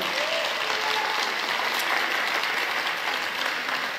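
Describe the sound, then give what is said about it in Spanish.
An audience applauds the Lord steadily, a dense, sustained wash of many hands clapping at an even loudness throughout, with no pauses and only faint traces of voices underneath. “Vamos, si va a aplaudir, apláudale bien al Señor.”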